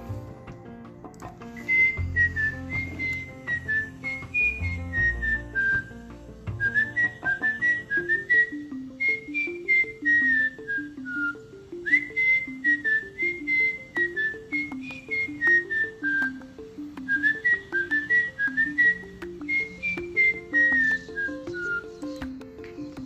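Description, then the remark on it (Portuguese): A group whistles a cheerful song together in repeating rising and falling phrases over a steady, bouncy instrumental accompaniment, clear, with no talking. “Prepare-se que vamos assobiar juntos, hein?”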